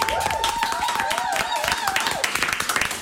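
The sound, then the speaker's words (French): An audience applauds with dense, steady clapping that fills the whole moment, while a sustained, wavering high voice or whistle rises above the crowd noise. “Je vous demande, de l'applaudir, si vous plaît.”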